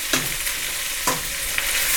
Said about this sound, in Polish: No dobra, myślę, że już mogę ją wrzucić. Tak, dość intensywnie muszę mieszać, żeby to się zaczęło mi przypalać. Za chwilę wleję szklankę wody i to się będzie dusiło.